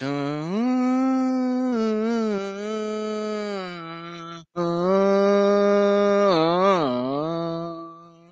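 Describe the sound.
A voice imitates the orchestral Villa-Lobos music heard at the start of a film, singing two long sustained phrases with sliding pitch and a brief break between them, loud with no other talk.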